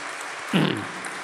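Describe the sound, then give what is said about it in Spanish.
Steady, dense clapping from a church community crowd, applauding the Lord and the community members who do this work, continues throughout the short stretch, with a brief swell of louder, fuller noise partway through before settling back to an even level. “Dale un fuerte aplauso al Señor y a los hermanos que hacen esto.”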